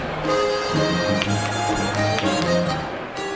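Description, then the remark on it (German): Sharp slaps and stomps of a Schuhplattler dance crack out at irregular intervals over steady, lively folk music, as a man slaps his hands on his shoe soles and calves and bangs black leather shoes loudly on the floor, cutting clearly through the band. “klatscht die Hände auf die Schuhsohlen und Wadeln und knallt die schwarzen Lederschuhe immer wieder laut auf den Boden.”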